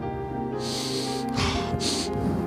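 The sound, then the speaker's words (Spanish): A patient draws a deep breath in and then lets it out during a cardiologist's examination, two airy, hissing gusts, the inhale longer than the exhale, with no talking. “Respire hondo.”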